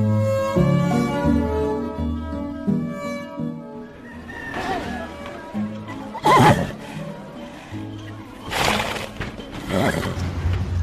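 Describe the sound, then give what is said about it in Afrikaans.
A Lipizzaner horse at a Lipizzaner centre in South Africa neighs and whinnies several times, loud, with sharp bursts in the second half over a steady tonal background. “Ons in Suid-Afrika is die enigste Lippizaner sentre in Afrika wat vertonings gee.”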